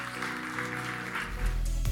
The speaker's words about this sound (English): If you really believe that with me, I'd love for you one last time to say thank you to God by clapping your hands to the Lord and saying, Thank you, Lord, for what you're going to do.